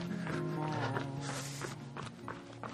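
Quick, steady footsteps of someone running during a six-minute running interval after walking, each footfall a soft thud, repeating in an even rhythm over sustained background music.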